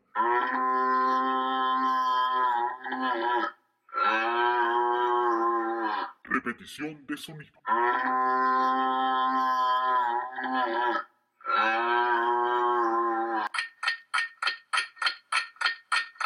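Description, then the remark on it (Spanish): Long, loud buffalo moos come in two pairs of drawn-out, droning bellows, split by a brief spoken phrase, then a quick run of short pulsed grunts closes it. “que por favor me digan que no dijeron vaca, que no dijeron vaca, porque es un búfalo.”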